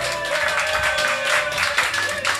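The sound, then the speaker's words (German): A crowd of around 300 visitors applauds steadily at a live recording in the Peacock Pub in Mattersburg, celebrating a first anniversary, many hands clapping at once in a dense, continuous wash of bright claps with no voices standing out. “Äh, dürfen wir uns äh, selbst einen Applaus wünschen.”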